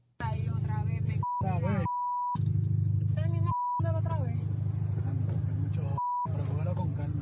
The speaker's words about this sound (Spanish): Estamos escuchando el, audio del motor, o sea, el carro ya está parado. O sea que claramente, claramente volvemos, o sea, eh, se escucha, se escucha que, está alterado y, que se escucha esa pipa eh, full ahí.